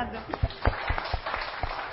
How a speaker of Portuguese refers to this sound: Pode sentar. Obrigado, uma salva de palmas para ela aí.